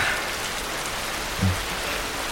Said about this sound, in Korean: 아, 비소리 좋다.